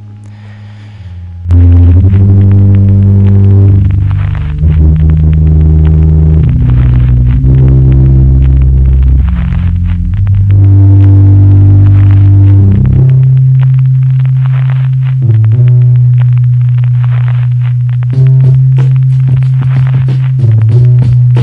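After a brief quiet moment, a recorded song kicks in loudly with a heavy, droning instrumental intro of deep sustained bass and shifting chords, with no singing yet.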